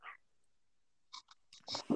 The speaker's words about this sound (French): Je vais prendre une gorgée en attendant, parce que j'essaie de réfléchir à ce qu'on a bu.